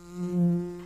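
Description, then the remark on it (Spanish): A bee buzzes steadily in stereo, a low droning hum that swells louder in the middle and then eases off slightly, with no other sounds around it; the bee buzzing in an advertisement for Andes Origen Miel, a honey-flavored beer. “¿Cómo no va a zumbar en estéreo?”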